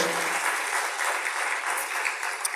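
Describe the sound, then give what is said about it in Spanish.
An audience applauds steadily for God, a dense, sustained wash of many hands clapping with no pauses, filling the whole moment without any voices standing out. “Vamos a dárselo bien fuerte porque es para Él.”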